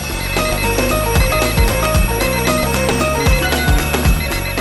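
A loud, continuous ringing alarm bell, played as a radio station's morning wake-up call, fills the whole stretch, layered over dense jingling tones and periodic deep thumps, with no one talking.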